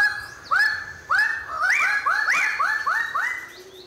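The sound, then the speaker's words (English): Birds of paradise calling: a rapid series of loud, rising, slightly nasal whoops, roughly ten in four seconds, some overlapping as if from several birds, with no talking. “Birds of Paradise. An aptly exotic name for this most varied and extravagantly decorated group of birds.”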